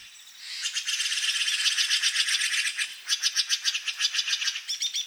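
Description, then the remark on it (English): Songbirds along the banks of the Russian River, just north of Marin County, recorded by Ed Herman, sing in high, rapid trills: a dense, buzzy run of notes that then breaks into quicker, clearly pulsed chirps. The song is fairly loud and steady, with no voices. “Many songbirds called the Russian River home. Ed Herman recorded as many as he could, and here's a sampling.”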